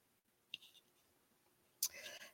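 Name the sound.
connection drop-out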